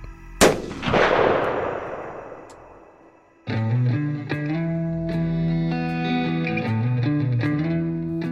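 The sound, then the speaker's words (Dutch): A single loud sniper rifle shot cracks out, then a long echoing tail rolls away and fades over a few seconds, before sustained music begins. “Een seconde later horen we het schot.”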